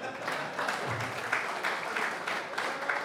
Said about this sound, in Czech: Zatleskejte, protože to je nejdůležitější.